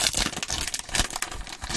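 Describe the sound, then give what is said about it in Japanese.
Coffee grounds are poured into the upper part of a coffee siphon, making a rough, continuous crinkling and rustling with bursts of hissy, papery noise that rise and fall unevenly, with no voices. “上の部分にこの粉を入れますね。という感じです。これ、よいしょ。ひどい、ひどい音が ひどい音がしておりますが。”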